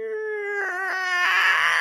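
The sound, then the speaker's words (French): A voice imitates a creaking prison door swinging open: a sustained, wavering, whiny tone lasting about two seconds that turns brighter and raspier toward the end. “C'est mon imitation de porte qui ouvre, ça. C'est une imitation de porte de prison, vous l'avez probablement remarqué.”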